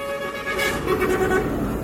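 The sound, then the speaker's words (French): A car horn honks amid dense roadside traffic on the road a few metres from the Couvet market, with steady engine rumble and passing vehicles filling the background. “Il est installé à quelques mètres de la voie et la circulation est plutôt dense.”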